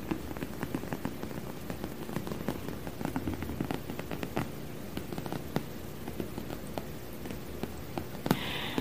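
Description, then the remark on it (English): Rapid, irregular fingertip tapping on a vinyl ottoman, a dense patter of soft, dull knocks like rain on a padded surface, with one sharper tap near the end and no talking. “I have this vinyl ottoman here that I really love the sounds of.”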